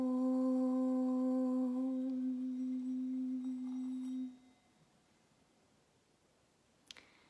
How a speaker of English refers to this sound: And allow the sound of the bell, the sacred singing bowl, just to move through your body, as well as the sound of Om.